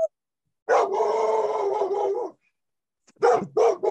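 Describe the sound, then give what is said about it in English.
A dog named Duke gives a long, drawn-out bark or howl lasting over a second, then after a pause fires off two or three short, sharp barks. No one speaks. “Yeah, I mean, uh, it sounds like Duke agrees.”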